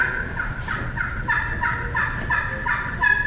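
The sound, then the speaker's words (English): A series of soft, subtle, evenly spaced turkey hen yelps made on a call to let a gobbler know the caller's location, about eight short notes in a steady rhythm over a low rumbling background, with no talking. “I'm going to let him know where I'm at. This real soft, subtle yelps.”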